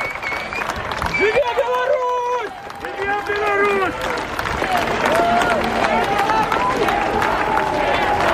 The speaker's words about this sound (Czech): A takto hučí staromestské námestie aj s davom demonstrantov. No, tak sme sa tu takto trošku zvukovo sme si tu vypočuli kulisu, ktorá v útorok zavládla na staromestskom námestí.